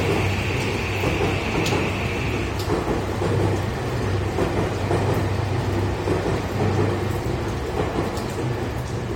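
A train arrives at a station with a loud, steady rumbling roar and a low droning hum, while a thin high squeal rings out briefly at the start and then fades.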